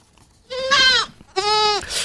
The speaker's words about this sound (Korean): 자, 염소 울음소리 한번 다시 들을까요?